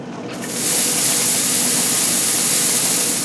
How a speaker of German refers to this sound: Akustisch sind wir mit dieser Kuliermaschine in der Zeit um 1900 angekommen, als das Städtchen Limbach und das Dorf Oberfrohna Hauptstadt der Handschuhherstellung sind